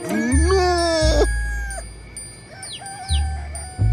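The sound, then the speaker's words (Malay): At three in the morning, a loud, drawn-out chicken crow rises and holds for about a second, followed by a few brief chirps over a steady low rumble, with no talking. “Dah, dah, dah kenapa orang ayam ni bising-bising sangat ni?”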